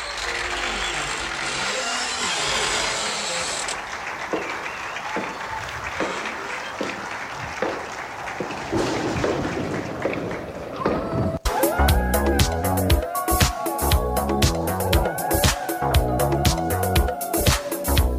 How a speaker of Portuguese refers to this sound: uma salva de palmas para Leandra Soares